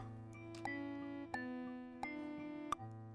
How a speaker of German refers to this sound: So, so ein glockenähnliches, fast Synthesizer-ähnliches Signal hört.